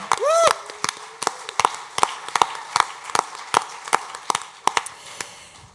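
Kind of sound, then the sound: crowd, audience applause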